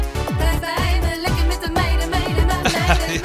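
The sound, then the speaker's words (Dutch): An upbeat dance party song played from a computer, with a pounding kick drum on a steady beat, bright synth melodies and harmonic layers, played loud and continuous with no voices. “Ik heb een computer. En er zitten echt alle feestnummers in. Kijk hier, …. En die klinkt dan dus weer zo.”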